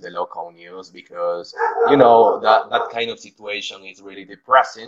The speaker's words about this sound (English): I am sorry for the barking of my dog. I don't know. Uh, I don't know what's going on outside,